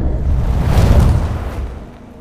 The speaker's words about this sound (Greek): Τη στιγμή της έκρηξης, η λάμψη της πλημμυρίζει την πόλη από ένα τσουνάμι έντονου φωτός στιγμιαία